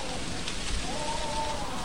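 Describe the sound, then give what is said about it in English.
Steady, heavy rain patters and hisses, a dense continuous wash of drops lashing hard against window panes with no pauses and no voices. “She only came in the dead of winter, when the nights were long and the rain lashed hard against the window panes.”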